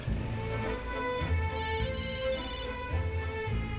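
A mobile phone rings while a woman is on her way to her third customer, with three quick, bright electronic bursts in a row, heard clearly over a steady background of music and low ambient sound.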